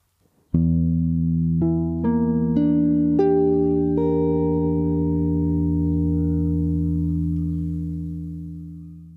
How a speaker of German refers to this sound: Erstmal müssen wir dazu einen Akkord haben, ja, und der Akkord auf der siebten Stufe in Dur was jetzt in Lokrisch die erste Stufe wäre. Das wäre ein E-Moll 7 B5 Akkord. Hören wir den mal an.